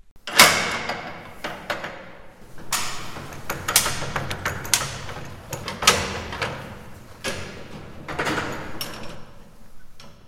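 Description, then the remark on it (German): The former tower clock of the Rebdorf monastery in Eichstätt clatters and ratchets as its mechanism is wound, then settles into loud, heavy mechanical ticks about once a second, with no one talking. “So, jetzt tickt sie. Die Turmuhr aus Eichstätt-Reppdorf.”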